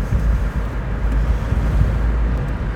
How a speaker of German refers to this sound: Ich hoffe, dann sind da jetzt keine schlimmen Windgeräusche drin. Aber ja, ob das so ist oder nicht, da ich hier ohne Monitoring aufnehme, weiß ich dann erst hinterher.